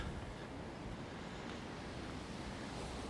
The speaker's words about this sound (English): With the wind and, of course, the rain.